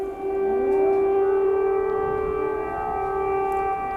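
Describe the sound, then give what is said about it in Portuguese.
A civil defense air raid siren wails steadily across Kyiv, the capital of Ukraine, warning the population that danger remains; its sustained tone holds loud and unbroken with faint overlapping echoes from other sirens, with no voices present. “E o, novamente, viu, as sirenes foram tocadas na capital da Ucrânia, que é Kiev. O sinal sonoro alerta a população de que o perigo permanece.”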